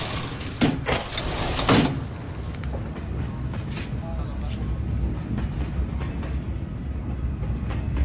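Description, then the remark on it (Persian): A train rolls along the rails with a steady rumble throughout, broken by a couple of sharp metallic clacks near the start before settling into a constant drone. “من که تو قطارم”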